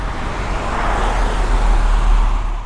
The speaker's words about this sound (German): Da kann ich mal ein Geräuschbeispiel liefern. Einmal hier, wir haben ein normales Vorbeifahrtsgeräusch.